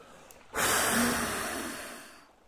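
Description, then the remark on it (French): A single long, forceful exhale of breath, blown with full force onto a pearl, starts abruptly and rushes for nearly two seconds, a broad airy whoosh that slowly fades out. “Il souffle de toutes ses forces sur la perle.”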